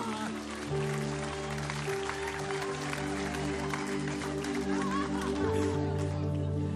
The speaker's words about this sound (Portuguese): Você crê que Deus faz isso aqui? Dá um aplauso forte ao Senhor.